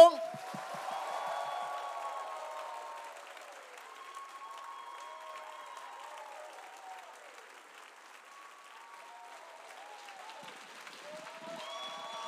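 Sustained audience applause fills the whole stretch, a dense wash of clapping that stays fairly steady, with a bright tonal musical line weaving through it and a brief swell near the end.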